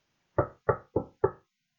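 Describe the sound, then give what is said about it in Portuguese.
Four firm knocks on a door in a quick, even rhythm, each a solid wooden thud that dies away fast, clear with nothing else around them. “E eu nunca mais me esqueço de uma história que era: vê-se um senhor a bater à porta de uma casa”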